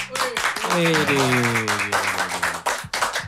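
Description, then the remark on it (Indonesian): An audience breaks into steady, dense applause for a band formed in 2009, holding at full strength for about three seconds, with a brief tonal cheer or voice sliding downward within the clapping early on. “dan dengan kekeh dengan genre yang itu itu terus nggak terkontaminasi dengan adanya uh, eh, tren tren sekarang tepuk tangan dong”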